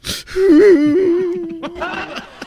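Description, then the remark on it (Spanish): A person lets out a loud, drawn-out wail, the voice wavering up and down like sobbing after a sharp intake of breath, then trailing into softer broken cries. “¿Por qué lloras?”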